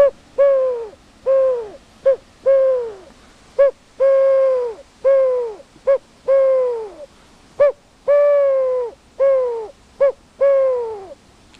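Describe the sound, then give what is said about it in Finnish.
A cylindrical wooden bird call with a pigeon picture on it is blown in a long run of short, hollow cooing hoots that imitate a wood pigeon. The notes come in loud, uneven bursts, with no talking. “Sepelkyyhky, aivan.”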